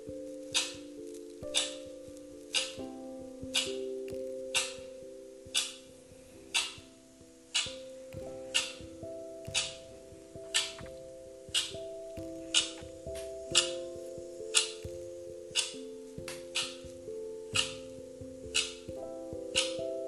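Steady clock tick-tock, sharp clicks repeating roughly once a second at an even pace, laid over a soft sustained synth pad that shifts slowly in pitch. No voices.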